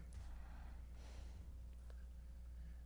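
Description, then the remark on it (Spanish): Soft breathy inhales through the nose, like someone slowly drawing in a scent from a bottle of essences, with a couple of airy sniffs over a low background hum and no talking. “Y y yo las dos con nuestra botella de esencias aquí Estoy respirando tu esencia, la, la tuya”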